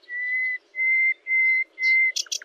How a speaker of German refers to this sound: Das war die Nachtigall und nicht die Lerche.